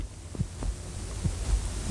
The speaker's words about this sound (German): Mein Herzschlag ruhte sich aus.